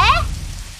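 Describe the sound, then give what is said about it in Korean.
A steady, dense hiss of heavy rain from a sudden shower pouring down fills the short moment, with a brief rising, voice-like tone at the very start before the downpour continues alone. “그러면서 증조 할아버지는 어우 빗소리 봐 세상에 평소 때와 다름없이 천천히 걸으셨습니다.”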